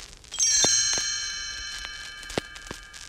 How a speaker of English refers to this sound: You will know it is time to turn the page when you hear the chimes ring like this.